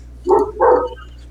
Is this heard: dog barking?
yes